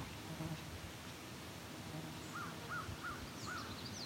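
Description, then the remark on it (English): A crow being harassed by what is probably a red-winged blackbird gives a series of four evenly spaced caws, with thin, high chirps from the smaller bird breaking in near the end over a steady outdoor hum. “One is being harassed by, it's probably a red-winged blackbird, because that's what they do. They harass rocks and crows often, and ravens too.”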